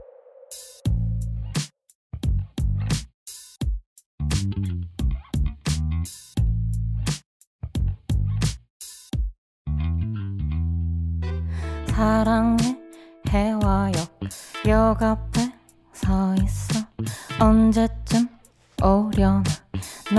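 An upbeat love song plays loudly, with a steady thumping beat and a singing voice carrying the melody over bright, bouncy accompaniment throughout.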